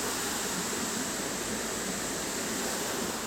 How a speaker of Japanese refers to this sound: これは川の音滝から流れた川の音